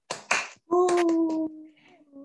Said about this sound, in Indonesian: Ye, tepuk tangan yang meriah dong.